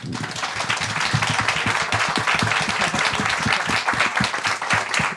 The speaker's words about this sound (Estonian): nii et ma paluks siis meie publikuga ühinege minu koos minuga, et teeme siis meie arutlejatele suure tänuaplausi.